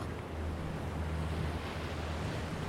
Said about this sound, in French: Il y a la mer. On est arrivé euh, au bord d'une plage sauvage.